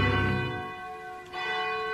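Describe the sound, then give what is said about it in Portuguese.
A large bell of the Cathedral of Our Lady of Aparecida tolls with a deep, resonant strike near the start, its harmonics ringing on, then a second strike sounds about a second later, long sustained tones with no voices. “Bate o sino da Catedral de Nossa Senhora de Aparecida.”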